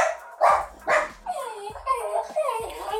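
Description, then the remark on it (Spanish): Dogs that have detected an intruder bark repeatedly, a couple of sharp broad barks followed by higher, yelping barks in a quick irregular series, loud and dominating the scene. “A ver, aguántenme que los perros han detectado a un enemigo.”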